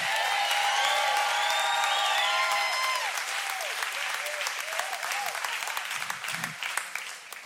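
A large crowd applauds and cheers loudly, with whoops and shouts riding over steady clapping that gradually tapers off toward the end.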